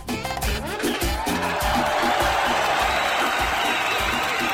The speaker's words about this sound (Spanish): así que para todos ellos un fuerte aplauso público conocedor.